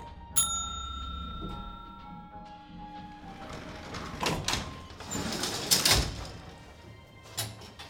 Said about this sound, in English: The bell is going to go ding.